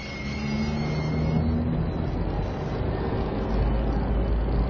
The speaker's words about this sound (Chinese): 现在，小房子看着各种各样的汽车从城市那边开来又开去，有加油站、路边店，各种各样的小房子沿着新路两边盖起来。每个人、每样东西都移动的比以前快多了。